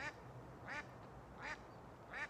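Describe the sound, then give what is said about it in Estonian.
A duck quacks four times in a steady, evenly spaced rhythm, each quack loud and nasal over a low outdoor background rumble. “part teeb oma tööd aga samal ajal võtan päikest, on ju.”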